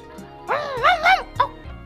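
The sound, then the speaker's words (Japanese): A person's voice imitates a female beagle's quiet, subdued, apologetic barking as its owner gets out of a car: a few soft, whiny yelps in quick succession, fairly gentle in volume. “私も例外ではなく仕事から帰宅すると車の音が聞こえた途端に吠え始め私が車から降りた途端に申し訳なさそうに音量を割いて「”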